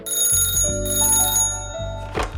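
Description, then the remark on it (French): A telephone rings for an incoming call on a Tuesday afternoon during lockdown, with an electronic, bell-like ringtone, a bright tonal melody that steps between pitches, fairly loud, with no voices over it. “Je reçois un appel de Laurent.”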